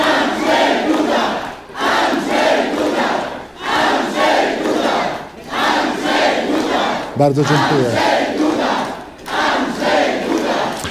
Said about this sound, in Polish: Jak słyszymy, zwolennicy Andrzeja Dudy nie dają mu dojść do głosu.